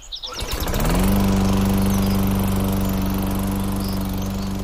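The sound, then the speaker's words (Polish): A lawn mower engine, heard at seven in the morning on a Saturday, sputters to life, revs up within a second, then settles into a loud, steady, buzzing drone, with faint bird chirps in the background. “I ja nie mam absolutnie nic do koszenia trawy, żeby było jasne.”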